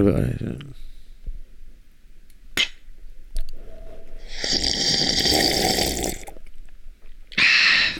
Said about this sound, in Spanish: No hay nada como un buen sorbido.